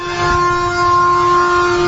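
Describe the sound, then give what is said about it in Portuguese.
A long line of trucks entering highway RS 118 toward Gravataí, heard through a lowered car window: a loud, steady horn-like blare sustains throughout over a low engine rumble, with no one speaking. “Este som são caminhões, uma grande fila de caminhões nesse momento pegando a RS 118 no sentido de Gravataí.”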